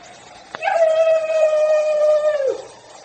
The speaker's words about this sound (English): What was it? It was a human cry